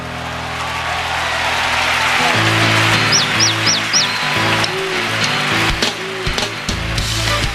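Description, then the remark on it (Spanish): A man in Cuba whistles a quick run of four bright, rising chirps imitating small birds, clear over a busy, rumbling background of other sounds. “El que hace el sonido de los pajaritos”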